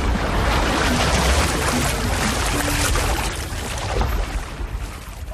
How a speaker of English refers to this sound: And certainly the sounds of the wave organ are a part of it, but it's, it's also the ambient sounds as well. It's sort of like your body and your psyche just sort of relaxes and fits in to what's there.